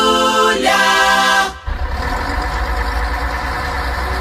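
bus engine idling

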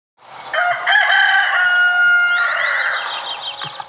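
rooster crowing

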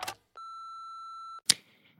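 answering machine beep

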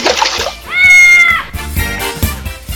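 cat meowing

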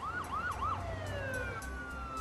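police car sirens wailing

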